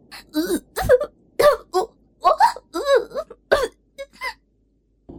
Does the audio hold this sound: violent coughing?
yes